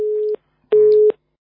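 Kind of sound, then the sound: signal or alarm, phone busy tone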